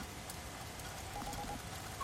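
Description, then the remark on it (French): Steady, soft rain patters down without pause indoors, a dense wash of drops falling through a broken roof window (skylight), heard fairly quietly and continuously with no one speaking. “Ah ben, attendez, puisque je vous le dis, je, je vois bien, je suis devant, ça pleut à l'intérieur là.”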